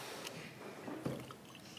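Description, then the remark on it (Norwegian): Water poured into a glass at an evening event at Union Sende in Drammen, a soft trickle with light splashing that swells briefly partway through, over quiet background noise with no voices. “Jeg får helle litt vann.”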